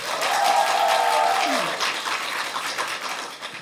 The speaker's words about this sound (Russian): но клубу «Ящик» огромное спасибо за предоставленные напитки, за предоставленную атмосферу, за предоставленное вообще все. Громовые аплодисменты.